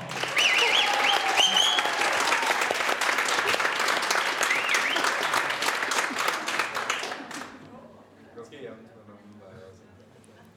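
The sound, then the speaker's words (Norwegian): A live audience claps to vote for its favourite story in a dense, steady burst of applause for about seven seconds, then it drops off sharply, leaving quieter voices talking. “Klapper du nå.”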